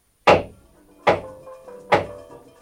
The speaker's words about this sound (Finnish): Ja nyt nyt hyvät kuuntelijat, me saamme nähdä, kuinka yleismies Jantunen naulaa näytöskorokkeen viimeiset naulat.